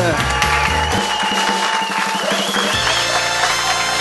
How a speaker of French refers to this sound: Merci à toi d'applaudir un petit peu plus longtemps que tout le monde. C'était hot, c'est apprécié.